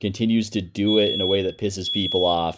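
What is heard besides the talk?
alarm going off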